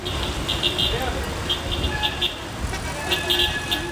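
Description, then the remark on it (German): Dense city traffic heading toward the city centre of Cairo, Egypt, on a Friday morning rumbles continuously, with short car horn toots sounding repeatedly over the engine noise. Indistinct voices can be heard faintly in the background. “Auch wenn es auf den Straßen am Freitag, dem freien Tag der Ägypter, erst noch recht ruhig ist, je näher ich dem Stadtzentrum komme, desto dichter und lauter wird der Verkehr.”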